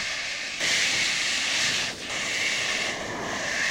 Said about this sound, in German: Nun hört man den Wind leise am Haus vorbeiströmen.